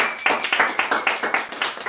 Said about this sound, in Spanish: Un aplauso también.